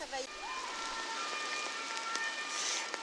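Steady, dense hiss of heavy rain pouring down outdoors in front of the Closerie des Lilas in Paris, continuous for the whole stretch, with faint tonal hum of city traffic mixed underneath.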